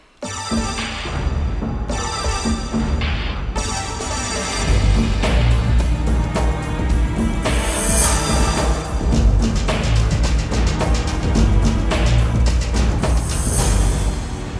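A reworked orchestral version of the James Bond theme, the gun barrel music, plays loud and full. It opens with punchy stabs before settling into a driving, rhythmic groove with bright brass-like swells and a steady pulse, no voices.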